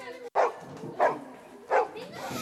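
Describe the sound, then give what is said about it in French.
A dog barks three times at a steady pace, each short, sharp bark loud over a low background murmur. “j'étais, j'étais avec un pote et là, là je, vois, je vois un chien.”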